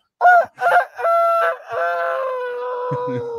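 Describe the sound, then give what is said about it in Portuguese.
A rooster crowing sound effect plays loudly, two short clipped notes followed by a long, drawn-out call that slowly trails downward, with no talking over it. “o Galo. Ó.”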